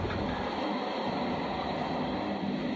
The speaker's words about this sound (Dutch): Ja, uh, we zijn nu net eh, onze tweede trein ingestapt. Eh, even kijken hoor, nu, we zijn nu in plaatsje landgas. En eh, we zitten voor, de komende twee uur kunnen we lekker wezenloos uit het raam gaan staren.